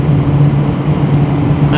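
A motorcycle cruising along a road: a steady, loud engine drone with constant wind and road rumble, holding an even pitch throughout without letting up.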